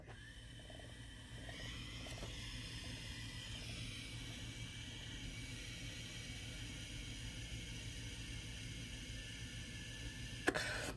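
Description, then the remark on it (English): A long, steady breathy inhale of cannabis smoke starts after about a second and holds for roughly nine seconds, ending with a sharp click; no talking. “So if you have cannabis and you, I mean, whatever form, if you smoke it”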